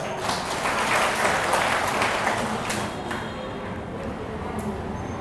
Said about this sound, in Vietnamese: rất đúng xin cho một tràng vỗ tay thật lớn